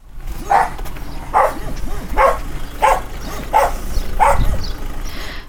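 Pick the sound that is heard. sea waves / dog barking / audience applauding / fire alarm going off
dog barking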